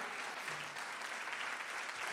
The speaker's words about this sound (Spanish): Si usted lo cree, dele un aplauso al Señor. Give the Lord a hand clap.